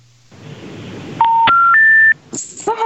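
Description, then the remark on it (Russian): A phone line cuts out with three loud rising electronic beeps in quick succession over a hissy, crackling connection, followed by a burst of line noise and garbled tones. “на самом интересном месте Александр Цыпкин ушел от нас э, в эфирное небытие”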